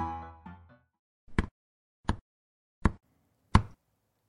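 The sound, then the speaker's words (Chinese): Four hollow knocks on a pumpkin, evenly spaced about two-thirds of a second apart, each a short dull thump, following a brief tonal sound that fades out at the start. “这是敲南瓜的声音哦。”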